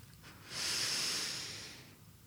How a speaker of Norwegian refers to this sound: Men, men du pusta inn først. Var, jeg pusta først inn med nesen.